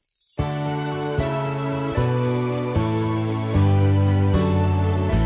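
Music starts after a brief silence: a song's instrumental intro with sustained, bright chords changing in a steady rhythm about every second, fairly loud and up close, with no voices yet.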